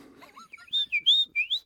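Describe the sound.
A person whistles a quick run of bright, high chirping notes, about five sliding tweets in a row, closely imitating a small songbird. Fairly clear, with no talking.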